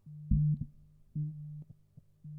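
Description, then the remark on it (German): A mobile phone vibrates in three low, droning buzzes separated by short gaps, with small knocks as it rattles against a surface. Nobody speaks. “Hier, wollt ihr mein Handy brumm hören?”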